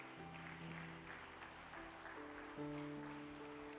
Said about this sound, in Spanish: Así que dale fuerte el aplauso al Señor.